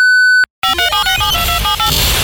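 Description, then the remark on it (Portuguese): A single loud, steady electronic beep lasting about half a second, then a brief silence before a dense, chaotic burst of jangling noise fills the rest. “Após o bip, o Lepopcast continuará normalmente.”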